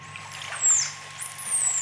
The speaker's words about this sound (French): L'IA, elle est sous l'eau et qu'est-ce qu'on entend là Alors cet extrait très particulier parce que les dauphins ont ce qu'on appelle une signature sifflée, c'est-à-dire ils ont un nom euh, qui leur est particulier